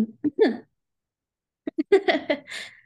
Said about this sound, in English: I think ultimately, here, one second, I have to cough. I'm so sorry.